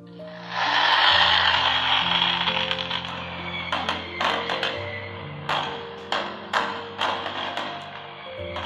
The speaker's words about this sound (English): Ah, can you hear that? The distant symphony of fireworks, the universal language of celebration. It's New Year's, my friend, the time when the world collectively decides to flip the calendar and give life a high five.